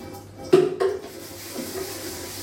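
Two sharp clinks of dishes or utensils as a vegetarian burger is prepared in a home kitchen, then a soft, steady kitchen background with faint rustling and a low hum while a washing machine runs. No one speaks.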